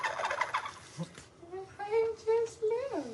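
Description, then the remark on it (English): A loud water bottle while someone drinks from it with its stick taken out, giving a run of squeaky, warbling gurgles that rise in pitch, repeated several times after a few rough splashy bursts. “It has a stick in it, but um, I took the stick out, so instead I just drink it this way. Loudest water bottle over here.”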